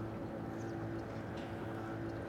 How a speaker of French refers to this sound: bateau à moteur sort du port.